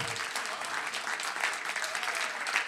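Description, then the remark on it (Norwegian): Steady applause from an audience in a church, a dense wash of many hands clapping at an even level throughout, with no voices standing out. “Det skjer i denne kirka, det skjer nå, og det er verdt en applaus.”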